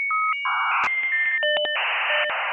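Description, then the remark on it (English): A person's voice imitates a dial-up modem connecting: steady electronic tones give way to bursts of harsh, hissing static and warbling beeps, loud, with no talking over it. “I think of a modem, I think of a”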